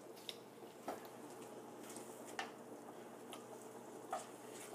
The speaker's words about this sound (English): So put a little wad full of honey on there. going to stir fry it around a little bit.